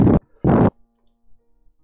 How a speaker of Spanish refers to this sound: suena como que estás respirando muy intenso en el micrófono